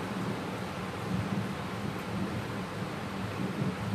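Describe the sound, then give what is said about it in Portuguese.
Thunder rumbles low and steady beneath a broad hiss like heavy rain or wind, holding at an even level for the whole stretch with no sharp crack and no voices. “Um momento tão desafiador deu esse trovão, esse raio.”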